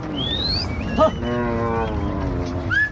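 Busy street noise with a steady traffic rumble, a drawn-out lowing call from cattle in the middle, and short high whistle-like chirps at the start and end.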